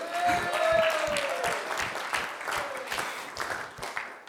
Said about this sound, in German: Yeah, Applaus.